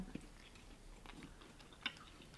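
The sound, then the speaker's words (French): Someone chews food, soft wet mouth sounds with a couple of sharper bites or crunches standing out, and no talking. “ouais c'est difficile de manger par mais, bah mais, tu as le droit de parler la bouche pleine, regarde le début.”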